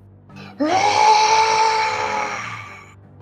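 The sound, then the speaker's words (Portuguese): A loud, piercing creature scream bursts in suddenly and holds for about two seconds, its pitch rising sharply, then sliding slowly down before fading, over a low rumbling background. “vocês escutam um barulho muito grande de uma criatura gritando.”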